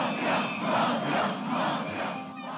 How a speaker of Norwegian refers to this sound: Og nå har folk flest fått nok de går ut i gatene kveld etter kveld og roper mafia og mordere til politikerne sine.